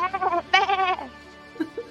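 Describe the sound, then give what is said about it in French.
A sheep bleats twice in quick succession as the sheep move away, a wavering, nasal call, followed by a fainter short bleat or murmur near the end. “Et à mesure que les moutons s'éloignent, tu sens que malgré tout, elle te lâche pas du regard”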